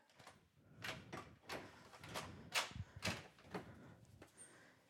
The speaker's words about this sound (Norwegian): Da lukker jeg opp døra her i dette rosa hjemmet.